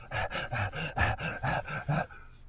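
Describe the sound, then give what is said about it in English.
A person imitates heavy panting with the tongue hanging out: about eight quick, breathy, voiced huffs in a steady rhythm, fairly loud, stopping abruptly near the end. “their tongues are hanging out and panting”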